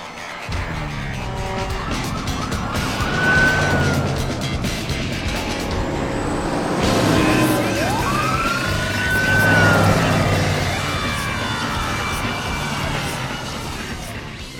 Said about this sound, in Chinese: 搞了半天是个消防车啊！